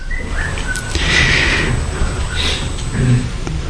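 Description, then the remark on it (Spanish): A short, thin whistle rises briefly above a low background hum, followed by a fainter second whistled note a moment later. No one speaks. “Me silbaron, ¿no?”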